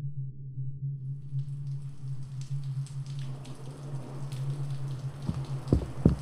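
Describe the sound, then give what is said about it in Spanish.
Heavy rain falls during a storm in a steady hissing patter that thickens after the first second, over a constant low hum, with a few sharper drops splashing near the end. No one speaks. “Estaba lloviendo mucho.”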